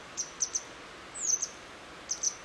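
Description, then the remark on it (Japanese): Sharp, high-pitched alarm calls from two small parent birds ring out in short bursts, several quick chirps repeated at irregular intervals over a quiet outdoor background, sounding agitated as the birds warn a person who has approached. “もう親が今もう親がもうそれまでもずっと泣いてたんですけどその泣き泣き方が激しくなりまたも警戒してるですよね最初近づいた時はあの親鳥が2羽こう立ち下がって僕にあの僕の前に降り立ってこう羽を大きく広げてですねちっちゃい鳥なんですけど”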